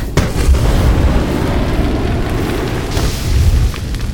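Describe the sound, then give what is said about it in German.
A magical burst of fire, conjured with a fairy wand to light a fire, roars out as a heavy, rumbling whoosh, sustained for several seconds with deep booming swells near the start and again near the end. No voices. “Ähm, Feuer!”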